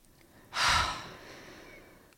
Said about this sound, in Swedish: Och vet du vad snabbaste sättet att bryta kortisol är? Puste, eller? Andas in jättedjupt.